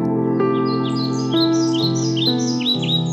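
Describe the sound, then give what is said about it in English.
A bird sings from the top of a tree in quick, high chirping phrases, repeated again and again, while the wind blows the leaves, set over a steady low droning tone that runs beneath the whole time. “A bird sings on the top of the tree while the wind blows the leaves.”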